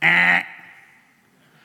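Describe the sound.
A voice mimics a game-show wrong-answer buzzer, as if pressing the button on a red X box, with one loud, nasal, buzzing "ehh" lasting under half a second, then a brief fading tail.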